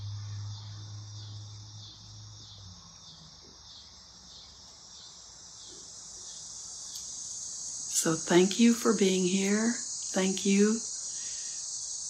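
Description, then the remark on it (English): A steady, shrill chorus of cicadas outside drones without pause from start to finish, even, while a person speaks briefly near the end. “I think of the cicadas outside. If you can hear them, they're like the chanting in the background.”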